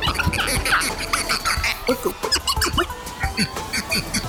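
A bottle squeaks in a rapid run of short, high, rubbing chirps, fairly loud, with people talking and laughing over the top.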